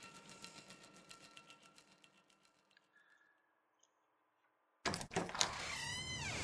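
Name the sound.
door flung open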